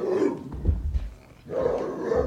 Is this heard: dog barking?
yes